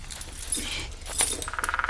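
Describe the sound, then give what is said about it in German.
A lockpick rattles and scrapes inside a door lock with bright metallic jingles, then settles into a quick, steady run of small clicks. No voices are heard. “Da werden wir wohl hinein müssen. Äh, Peter, hast du den Dietrich dabei?”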